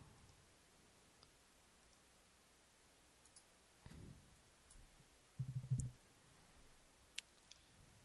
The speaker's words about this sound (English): I'm adding him. I was clicking my mouse.